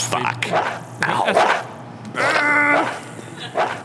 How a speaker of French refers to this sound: Tu es rentré chez les gens et le chien te poursuit, donc tu tapes le chien. Bah non, mais il est en train de m'attaquer. C'est self-defense.